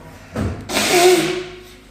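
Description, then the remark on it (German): A person blows their nose: a short snuffly puff, then a longer, loud, rushing honk with a slight whistling tone that fades out over about a second. No talking. “Jetzt muss ich die Nase putzen, Entschuldigung.”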